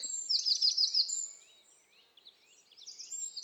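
A wren sings a rapid, high-pitched stream of trills and chirps, loudest at the start, dipping briefly, then bursting out again; the song is clear with no talking.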